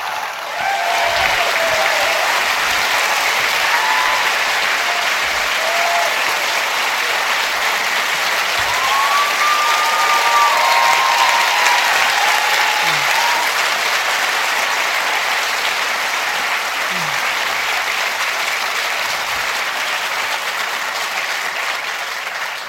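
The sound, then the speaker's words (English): A large audience at a special event in Edinburgh applauds steadily to welcome two speakers, a dense wash of clapping that holds strong and unbroken for over twenty seconds, with a few faint cheers rising from the crowd. “So please put your hands together and give the biggest round of applause for Masha Alyokhina and Yanis Varoufakis.”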